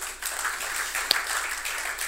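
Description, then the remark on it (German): An audience applauds steadily for the whole two seconds, a dense wash of many hands clapping at an even level, with one sharper, louder clap standing out midway, giving a round of applause to the person working in the control room. “Einen großen Applaus an Angela, die da hinten in der, in der Regie steht.”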